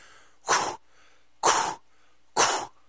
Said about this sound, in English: that's her like blowing air out and she then proceeds to go to everybody on the stage and blow in their face